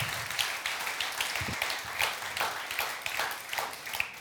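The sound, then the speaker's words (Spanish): A church audience applauds steadily for God during a Spanish-language sermon, a dense patter of many hands clapping together, sustained at moderate volume for a few seconds with no speech over it. “¿Cuántos pueden decir amén y darle un fuerte aplauso a su Dios?”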